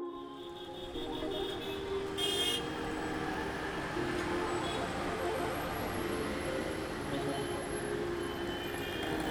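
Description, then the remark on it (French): Busy street traffic in the Miraflores district of Lima rumbles steadily throughout, engines and tires blending into a dense wash, with car horns sounding over it, one sharp honk standing out early on. “Et en fait, il y, a beaucoup de circulation à Lima et Miraflores, c'est un petit quartier un peu préservé au milieu de, au milieu de tout ce tumulte.”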